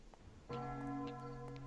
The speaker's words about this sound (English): I love the bell. I, am so happy with the bell. Can we have the bell the whole time? I said that. It's like dong. it's like awesome.